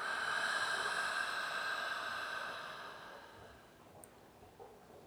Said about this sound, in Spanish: Inhala por nariz. Exhala por boca. Último, inhala por nariz. Exhala por boca.